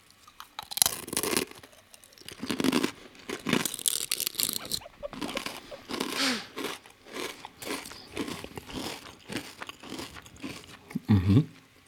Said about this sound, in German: hört ihr, wie das Glück, Glück zerbröselt? Und so zerbröselt der Keks nun mal.